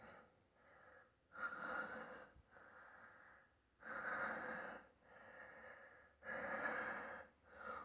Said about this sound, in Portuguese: Uma respiração ofegante, cheia de prazer.